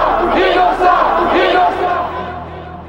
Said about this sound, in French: Devant le palais de justice, une foule s'est réunie et scande Omar innocent.